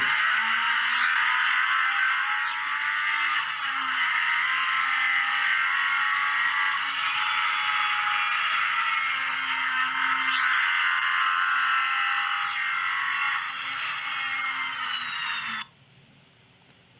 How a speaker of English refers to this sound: But we also um, subjected the engines to our most aggressive engine level tests. And I've got a video here that shows just how aggressive those tests are.